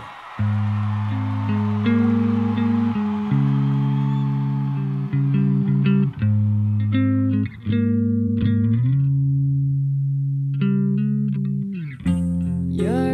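A pop song intro plays loud and close: sustained, effect-heavy guitar or synth chords shift through a slow progression, briefly dropping out near the end, with no voices.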